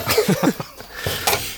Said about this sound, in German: Prost, Gesundheit. Gesundheit.